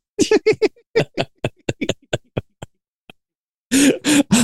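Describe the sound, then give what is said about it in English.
A voice imitates a wet lip-sucking slurp: a rapid string of about a dozen sharp smacking sucks that slow and thin out, then a burst of laughter. “because I made that noise somebody's in their car right now trying to do the lip suck from Silence of the Lambs”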